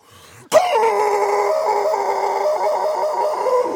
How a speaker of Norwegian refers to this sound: Der har vi paringsraute til halvøkologosaurus rex.